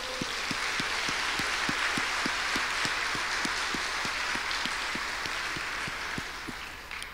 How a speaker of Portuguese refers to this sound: aleluia, aplauda o Senhor.